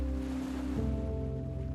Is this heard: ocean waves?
yes